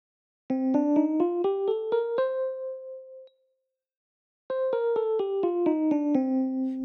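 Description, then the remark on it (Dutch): A minor scale played on a Wurlitzer organ, climbing note by note to a held top tone, then after a short pause descending step by step, clear with no voices. “En eh, dan heb je ook een minor toonladders en die klinken zo.”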